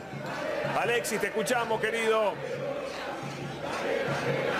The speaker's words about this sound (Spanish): Bueno, bueno acá yo los escucho con bastante dificultad porque esto es, realmente un festejo impresionante de la gente de Boca. Estamos atrás de la platea, en la zona de la vía. Eh, la gente está exultante, festejando